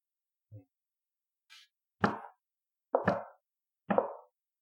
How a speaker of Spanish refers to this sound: Tocas a la puerta de la casa de Dormaedon Frill.